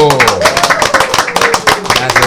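A small group claps for a couple of seconds to welcome a guest singer, a brisk burst of overlapping hand claps with some voices murmuring underneath.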